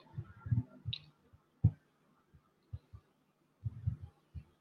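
Muffled noise of a microphone being fixed: irregular low thumps and bumps with a sharp knock partway through, scattered across a few seconds, with no one speaking.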